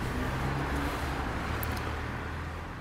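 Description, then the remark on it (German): A steady wash of street traffic rumbles through an open window on one of the first warm days of early spring, with a continuous low road hum and broad noise and no single car standing out clearly. “ein paar Autos, ein paar Vögel und ein paar Kinder.”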